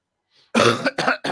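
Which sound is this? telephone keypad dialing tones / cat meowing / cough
cough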